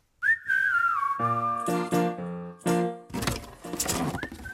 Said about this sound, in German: zum Beispiel hat sich vor ein paar Wochen einen Hund zugelegt und den möchte er jetzt mit Hilfe von so hohen Pfeiftönen trainieren.